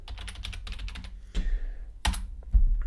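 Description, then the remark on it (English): Rapid clicking of keys on a computer keyboard while typing a password, a quick run of taps followed by a few heavier, separate key presses, fairly loud with no talking. “Uh, a few hackers out there can listen to those keys.”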